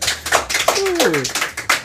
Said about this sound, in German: Ja, ihr dürft auch noch mal klatschen, ne, wenn ihr das wollt.